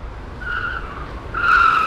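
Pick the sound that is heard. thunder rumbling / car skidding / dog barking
car skidding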